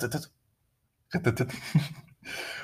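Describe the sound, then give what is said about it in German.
A voice imitates a built-in car radio with a display switching on as the car is started: a short breathy burst, a pause, then a longer crackly, hissing stretch and a final static-like rush, as the radio receives nothing. “Um, ähm, und immer wenn ich das, das Auto starte, dann hört es sich so an.”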